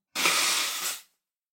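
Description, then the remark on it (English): A single forceful nose blow, a loud, breathy rush of air lasting about a second, swelling slightly near the end before cutting off, with no talking. “Sorry, I need to blow my nose.”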